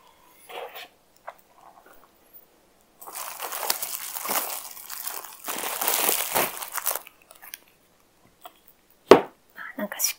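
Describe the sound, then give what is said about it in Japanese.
Crinkling microphone packaging rustles and crunches in two long bursts, with a few brief handling clicks and taps around them, while a microphone is being unboxed and its box set aside. “これもちょっと、箱は一回ちょっと避けてしまいますね。”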